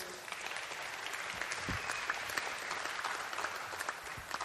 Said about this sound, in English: what will happen is every time somebody stands, the congregation will do just that. They'll, they'll cheer and, and, and applaud uh, because there's nothing more important than a changed life.